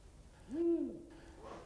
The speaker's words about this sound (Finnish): Kaukaa kuultuna viirupöllön huhuilua voi olla vaikea erottaa pihapiiriä vartioivan karvaturin haukahtelusta.